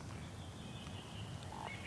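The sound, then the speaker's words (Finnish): A faint bird call sounds in the background, a thin high whistle and a brief lower note near the end, over a steady low outdoor rumble with no one speaking. “Se tulee toi kur, kurpisiip, mikä kuuluu tuossa taustalla myöskin”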